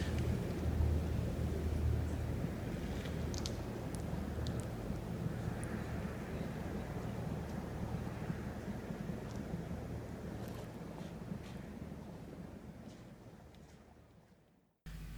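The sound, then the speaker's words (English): Powerful rushing floodwater of a flash flood in the Negev desert roars steadily and loudly, a dense turbulent churn with heavy low rumble and wind buffeting the microphone, continuing unbroken for the whole stretch before cutting off abruptly. “So I'm going to show you a video of what it looks like when the Negev floods.”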